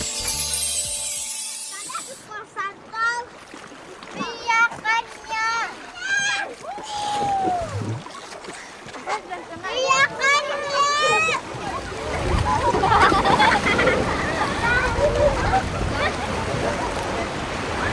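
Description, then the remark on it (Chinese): Sea waves in an old song recording without lyrics wash in as a steady, hissing rush that swells louder in the second half, with high, lilting children's voices calling out over the surf. “只能听到那个海浪声音，我心情很开朗，像那小孩子啊，那个心情就是这样子，嗯，这个小孩子的歌，就是这样子，心情很开朗这样子。”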